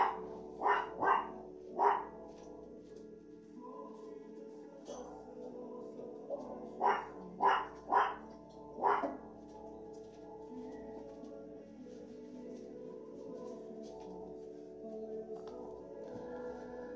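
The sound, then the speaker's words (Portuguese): Dogs at a house bark in two short bursts, three sharp barks near the start and four more around the middle, over a faint background hum before the sound settles into quiet. “Eu aqui na minha casa, você já está acostumado com os cachorros latindo, entende?”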